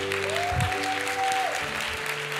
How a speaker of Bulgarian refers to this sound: О, аз щях да ръкопляскам, ако бях на вас